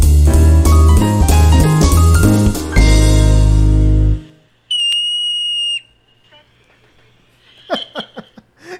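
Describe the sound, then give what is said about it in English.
A yellow-bellied marmot's call: a single shrill, high-pitched whistle held steady for about a second, following a short musical jingle, then a few faint, brief chirps. “Yellow Bellied Marmot: Brilliant Burrows”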